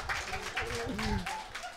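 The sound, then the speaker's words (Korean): A burst of audience applause, a dense patter of many hands clapping for a couple of seconds, with voices talking and calling out over it. “여러분 박수 쳐주세요.”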